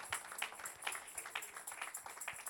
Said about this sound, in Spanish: Un aplauso para él.